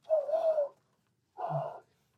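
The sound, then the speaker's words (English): A person imitates a loon's call with two wavering, hooting vocal cries, the first longer and sliding, separated by a brief pause, fairly loud. “Is your ancient god a loon?”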